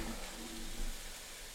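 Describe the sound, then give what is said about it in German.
Bell peppers sizzle steadily in a frying pan, a continuous crackling hiss at moderate volume with a brief swell partway through and no voices. “Ja, mal schauen, was die Pfanne macht. Die darf man natürlich nicht vergessen. Bisschen schwenken.”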